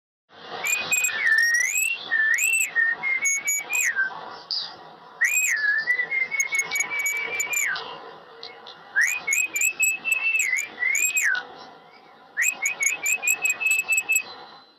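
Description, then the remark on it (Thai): Melodious call of a racket-tailed drongo: rich whistled notes and sharp chips in four loud phrases separated by brief pauses, with no voices present. “เป็นไงไพเราะมากๆ เลย หายากนะครับเนี่ยที่จะได้ยินเสียงนกแบบนี้ นี่คือเสียงนกอะไรคะ นกกระเวกครับ”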